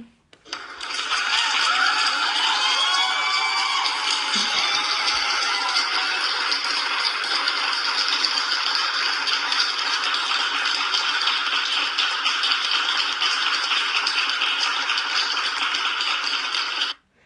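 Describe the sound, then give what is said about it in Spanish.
An audience applauds to send off a guest, in a dense, steady burst of clapping that holds at an even level for about sixteen seconds before stopping abruptly, with no talking over it. “Pues vamos a despedirla con un fuerte aplauso porque la verdad sí se la, se la rifó con esas preguntas.”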